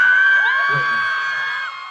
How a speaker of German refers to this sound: Er hat sich auf der Bühne einen Schuh ausgezogen, ein Getränk reingeschüttet und getrunken. Natürlich unter tosendem Jubel.